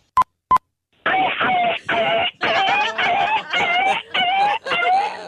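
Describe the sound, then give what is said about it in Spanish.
Two short beeps, then a voice imitating a kicked dog yelping: about seven loud, high, whining cries in quick succession, each bending in pitch, with a thin, telephone-like tone. “Un perro que acaban de patear.”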